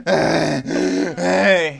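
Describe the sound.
A voice imitates the grunting of people lifting weights in a gym: three loud, strained, drawn-out vocal grunts in quick succession, each a low throaty groan with rich harmonics, with no speech in between.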